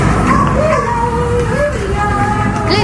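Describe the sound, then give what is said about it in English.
Many unwanted and stray dogs barking and whining together in the echoing kennels of a Blue Cross animal rescue centre in Kimpton, a dense, continuous clamor with high wavering yelps over faint murmuring voices. “This is where all the, the dogs, the unwanted, and the strays come in to the Blue Cross, and this is where we hope to change their lives around.”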